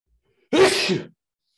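A single sharp sneeze bursts out, loud and breathy, lasting about half a second before cutting off into silence.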